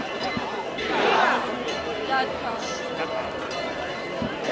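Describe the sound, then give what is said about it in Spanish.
A crowd raises scattered shouts and cheers of "viva" over a steady hubbub of voices, with a louder swell of cheering partway through and faint clattering in the background. “Ahí están los primeros vivas.”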